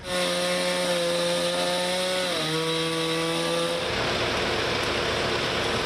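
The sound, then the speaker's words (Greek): A chainsaw engine drones steadily, dips in pitch, then bites into wood with a loud, rough grinding roar as municipal workers in Filothei cut and remove tree trunks broken by strong overnight winds from a road; no one speaks. “Σύνεργοι του Δήμου στη Φιλοθέη απομακρύνουν τους σπασμένους κορμούς από τον δρόμο.”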